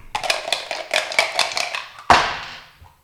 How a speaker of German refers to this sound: So, dann jetzt einmal mit beiden Würfeln würfeln.